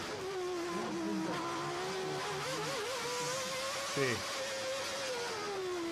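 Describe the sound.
A racing car engine screams steadily on a lap of the Monaco circuit, its pitch climbing and dipping through manual gear changes with a mechanical gearbox, with one abrupt downshift partway through. A voice speaks a single brief word over it.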